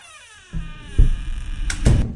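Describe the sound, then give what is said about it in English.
A bedroom door swings shut with a few soft, muffled thumps and a sharper latch-like knock near the end, over a faint steady hum and no voices. “I hear the master bedroom door open, close,”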